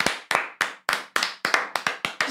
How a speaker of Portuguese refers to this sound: Ah, palmas, preciso de palmas. palmas.